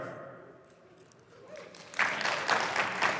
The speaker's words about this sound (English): I was hoping you'd clap, so I waited.